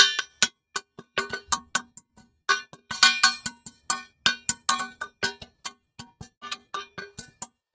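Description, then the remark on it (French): Someone beats a saucepan in a quick, syncopated batucada-style groove, with dozens of sharp metallic clanks ringing briefly. It's fairly loud and no one speaks. “Est-ce que tu es capable euh, de taper sur une casserole en rythme, hein, en tenant un rythme de façon Batucada”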